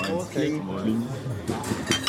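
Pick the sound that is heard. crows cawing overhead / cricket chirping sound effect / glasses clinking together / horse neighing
glasses clinking together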